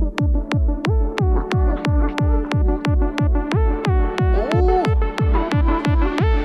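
A fast, accelerated, pounding electronic techno beat played on the radio show Carrer Major: a hard kick drum thumps steadily at a rapid tempo under sustained synth tones, loud and upfront with no voices.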